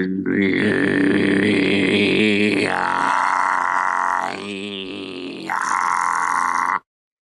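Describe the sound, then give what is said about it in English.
A man in Dubai voices a loud, guttural Mongolian throat-singing war yell, a rough growling drone with a buzzing overtone that shifts pitch in three sustained bursts before cutting off abruptly. “I am afraid that I can I will disappoint you, but I can do a Mongolian throat uh, uh, yeah, yeah. voice. Perfect. You know, try. You know try. the war yell.”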